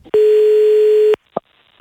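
A loud, steady telephone ringing tone as the radio show Vakna med Energy calls a listener: one long flat beep lasting about a second, followed by quiet pauses with a couple of faint clicks.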